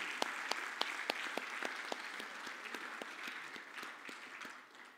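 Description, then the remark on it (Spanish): An audience applauds the Lord together, a dense, steady wash of many hands clapping with some sharper individual claps standing out, holding fairly even for about five seconds before easing slightly at the end. “Puedo darle un aplauso al Señor.”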